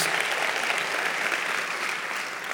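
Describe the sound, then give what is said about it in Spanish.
Sustained, loud audience applause during a church sermon, a dense, steady wash of many hands clapping at an even loudness for a couple of seconds, with no voices standing out. “Un aplauso fuerte”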